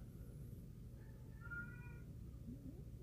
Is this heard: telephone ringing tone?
no